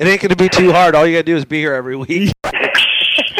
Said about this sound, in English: hear that? That was the sound of a Red Bull opening.